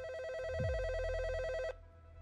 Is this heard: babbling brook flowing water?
no